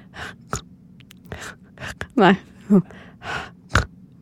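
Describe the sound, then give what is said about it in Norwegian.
A person attempts a vocal imitation of a snoring click: breathy gasps and snorts punctuated by a few sharp clicks, with a brief spoken word among them. “og i tillegg, noen ganger så får du en klikkelyd som er sånn”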